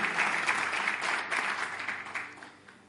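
A church audience applauds for the Lord Jesus in a sustained wash of dense, steady clapping, loud at first and gradually tapering off toward the end, with no voices standing out.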